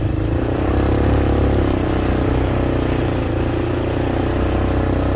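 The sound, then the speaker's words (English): Steady road traffic noise in Ellenwood, in the metropolitan Atlanta area of Georgia: a continuous low engine rumble and tire roar from vehicles, fairly loud and unbroken for the whole stretch, with no one talking. “And you can see some of the cars that are out there.”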